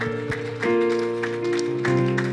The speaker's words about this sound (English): Can we clap our hands unto heaven today?